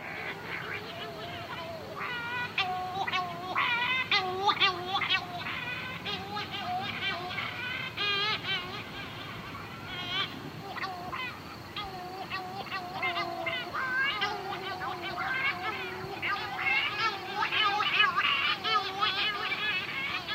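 Harsh, croaking bird calls at night, recorded on a phone, repeat constantly, many overlapping into a dense, raucous chorus that never lets up, with steady moderate loudness and a few stronger bursts toward the end.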